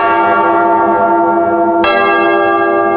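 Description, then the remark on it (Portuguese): A church bell, rung by the sacristan, rings loudly, its rich tone sustaining throughout, with a fresh strike partway through that renews the ringing. No voices are heard. “reze assim, reze assim, toca o sino, sacristão”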